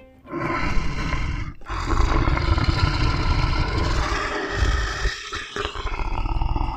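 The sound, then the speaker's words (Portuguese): A lion roars loudly, a long, rough, rumbling roar broken by a couple of brief pauses, going on for several seconds with no talking. “O leão estava na floresta atacando os animais.”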